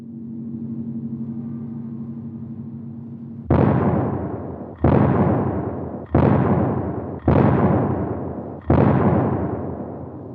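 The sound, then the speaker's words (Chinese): Cannon fire played from a vinyl record, causing strong vibration in playback: after a low, sustained tonal hum, five heavy booming blasts strike at roughly regular intervals, each loud and broad with a quickly decaying rumble. “也有的的确确呃嗯播到这个点就那个那那这个炮声的时候， 嗯，是的， 会有 会有非常物理的现象出 对 现。”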